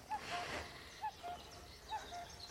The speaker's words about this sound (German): Drei, vier, fünf. Ja, der Kuckuck. Ich mag ihn nicht befragen.